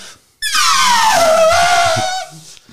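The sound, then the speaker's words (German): A voice imitates a MotoGP racing motorcycle engine at the race in Spielberg with one loud, sustained high-pitched whine lasting about two seconds. It sweeps downward like a bike screaming past, then cuts off. “MotoGP, das ist Motorradrennen.”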